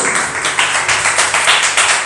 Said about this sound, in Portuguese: Dê uma salva de palmas para o Senhor Jesus, irmãos.